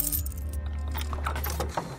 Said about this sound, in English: When they finally reached their door, Mrs. Tan's hands were trembling as she fumbled with the keys to unlock the door.